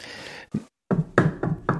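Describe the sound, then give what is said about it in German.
Several dull, hollow knocks on wood, knocked three times, fairly loud, tapped in a quick, slightly uneven rhythm after a brief pause, with no talking in between. “haben wir Holz hier irgendwo?”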